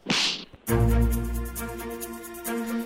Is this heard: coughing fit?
no